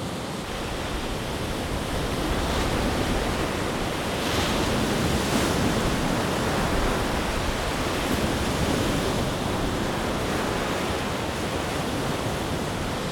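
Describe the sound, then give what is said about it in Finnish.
Steady wind rushes over the shore of Lake Päijänne at Pulkkiloharju while small waves lap and wash continuously and leaves rustle, a broad, even roar with no voices, fairly loud throughout. “Tuuli pitää oman äänen, vesi toisen äänen ja sitten lehtiä kahisee.”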